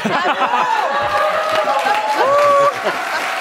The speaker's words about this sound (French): je suis content que vous m'applaudissiez, gang.